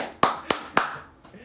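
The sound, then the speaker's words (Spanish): A brief round of applause made of three sharp, evenly spaced hand claps, followed by a much fainter fourth clap as the sound trails off, given to welcome a guest. “Un aplauso, por favor.”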